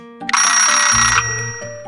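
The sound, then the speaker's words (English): A bell-type alarm clock rings in a loud, rapid metallic clatter for about a second, then cuts off, leaving a fainter lingering ring with no one talking. “your alarm clock might have a different sound, like this,”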